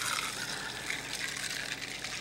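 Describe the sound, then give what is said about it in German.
Tonic water pours steadily into a glass of Edgerton Original Pink Dry, a continuous bright, fizzy splashing rush that holds at an even level for a couple of seconds with no voices over it. “Ich versuche mit ich Tonic den Geschmack so irgendwie zu neutralisieren.”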